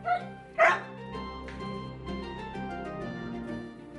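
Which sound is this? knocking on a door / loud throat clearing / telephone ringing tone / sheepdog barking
sheepdog barking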